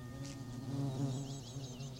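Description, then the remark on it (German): A steady, droning buzz of insects in an orchard hums continuously, with a low, slightly wavering pitch, while faint high chirps of sparrows flit above it in a polyrhythmic interplay. No one speaks. “Im Obstgarten wimmelt es. Insekten und Spatzen scheinen ihre polyrhythmischen Laute aufeinander abzustimmen.”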